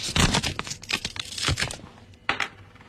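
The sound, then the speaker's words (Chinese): A letter envelope from Dalian, sealed tight with clear tape, is torn open, paper and tape torn and crinkled in a run of rough, noisy bursts, with a short pause near the end and one last sharp rip. Nobody speaks. “哎呀，这信呢都拿透明胶都粘的死死的了，我啊幸亏有一有一面是是它是能撕开的，要不然的话你想打都打不开。”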